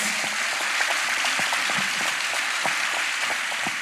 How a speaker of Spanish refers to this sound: Le damos un fortísimo aplauso a Santi y a Mariano.